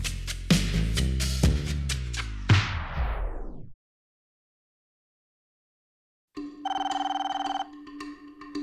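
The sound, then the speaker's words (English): A telephone rings with a steady, trilling electronic tone after a few seconds of silence, a call from the curator just before a collection opened at the Herbert Hoover Museum. Before the silence come several loud, ringing struck notes that fade out. No one speaks. “the phone rang one day, uh, just before they opened, and it was the curator.”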